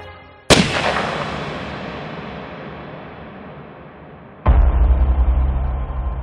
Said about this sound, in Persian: از پشت سر کسی به او شلیک کرد